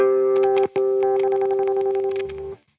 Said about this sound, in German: Äh, ja, mach mal ein bisschen Zerre rein. Oder möchtest du die Rockzerre? Ja. Ja, solche hm. Geräusche macht er zum Beispiel, ja.